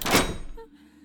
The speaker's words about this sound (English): A moment later, the door closed with a loud thud and all light vanished.